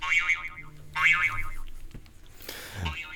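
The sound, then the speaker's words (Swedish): A mobile phone that was not switched off gives a notification twice in quick succession, a bright warbling electronic chirp that bends up and down in pitch, fairly loud, with a faint thud near the end. “Det var inte lyckat så av ljudet här. Den icke avslagna mobilen.”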